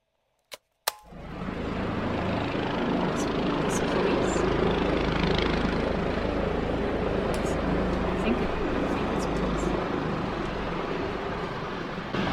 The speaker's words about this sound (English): I can't see. The helicopter just the helicopter just landed. It landed like in a place I can't really see. I can just hear it now